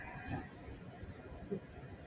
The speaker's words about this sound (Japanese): エアコンの音うるさいでしょごめんなさいね。窓を開けると花粉がさ、入ってきて、車の中真っ白になっちゃうから。